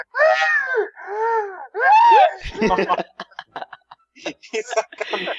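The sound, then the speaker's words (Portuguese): A voice imitates the heavy, wheezing breathing of a 300-kilo woman from Gugu's TV reports, likened to a car vacuum cleaner: three strained, drawn-out gasps with a rising and falling pitch, followed by quick talking. “Ela respira, parece um é, aspirador de carro”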